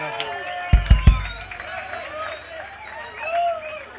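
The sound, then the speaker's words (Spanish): An audience at a tribute concert applauds and cheers for the band, a steady roar of voices with scattered whoops and shouts, opened by three heavy low thumps in quick succession early on. “en serio, creo que es muy merecido un aplauso para la banda que hemos juntado esta noche”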